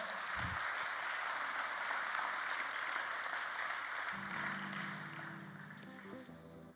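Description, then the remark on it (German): An audience applauds the band steadily, a dense wash of clapping that holds for several seconds, with a low musical tone entering near the end as the clapping begins to thin out. “Hey, gebt ihm einen Applaus, oder?”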